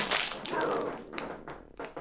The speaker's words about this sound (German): wenn es ein bisschen raschelt, das liegt daran, dass diese Tüte so unfassbar gut